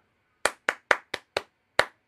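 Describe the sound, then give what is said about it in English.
Six sharp hand claps clapping back the syllable rhythm of the words "pterodactyl food truck" in the Clap It Back game: five in a fairly even run, then a short pause before a final clap. Crisp, with no voices. “I'll play some words, and then you clap back the rhythm of the words that I say.”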